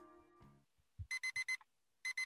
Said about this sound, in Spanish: Sigue sonando la alarma por un gran rato hasta que decido ir a apagarla y despertar a los demás.